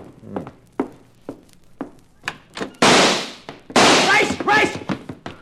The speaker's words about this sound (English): Then, less than an hour after Mark Donovan and I had checked in at the Bella Vista Hotel, there came a knocking at our door. Visitors already?